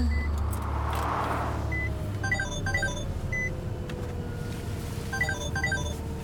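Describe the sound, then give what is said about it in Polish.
A truck engine drones steadily on the road, a loud, continuous low rumble throughout, with short bursts of high electronic beeping tones chirping over it now and then. “Dobrze słyszę, że ty ciągle w troku?”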